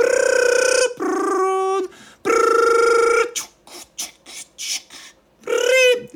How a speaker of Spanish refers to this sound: Quienes no hayan sufrido esa conexión a Internet estarán familiarizados con ese ruido infernal que caracterizaba la línea telefónica cuando teníamos que conectarnos a Internet.